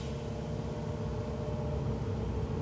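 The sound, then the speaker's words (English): A bus idles on the street outside, stopped right in front, a steady low diesel rumble that holds at an even level throughout, muffled, with no voices over it. “sorry guys there's a bus outside. Please don't stop right in front.”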